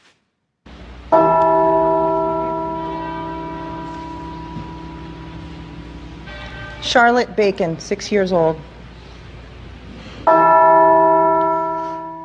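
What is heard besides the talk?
church bells tolling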